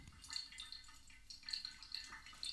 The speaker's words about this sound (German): Vielleicht hört man es sogar jetzt ganz leise im Hintergrund, wie der Kaffee wo reintropft.